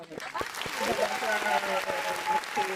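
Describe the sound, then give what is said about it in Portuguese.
A round of applause from a group welcoming a doctor as a guest: dense crackling claps sustained for a few seconds, with voices talking underneath. “Uma salva de palmas para”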